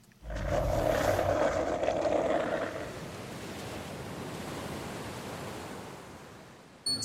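Skateboard wheels roll over rough asphalt on a street in Nantes, France, in a continuous gritty rumble, louder with a humming tone for the first few seconds, then steadier and duller, ending with a brief knock.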